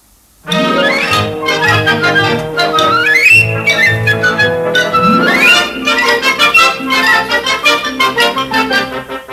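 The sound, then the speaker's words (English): A cheerful children's song plays loudly and continuously, with bright layered instruments and sliding, whistle-like melodic notes rising and falling. It starts abruptly after a brief silence, with no talking over it. “uh, which is a which is a lovely children's song.”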